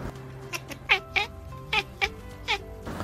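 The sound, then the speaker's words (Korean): A cat chatters in a quick run of short, clipped chirping bursts, about seven in three seconds, moderately loud with no talking, rapidly opening its mouth and clicking its teeth when excited at spotting prey such as flying insects or birds. “채터링은요, 주로 창밖을 보다가 사냥물을 발견하거나 실내에서 날벌레 등을 보고 흥분해서 혹은 사냥놀이 중에 지나치게 몰입하게 되면 내는 소리입니다.”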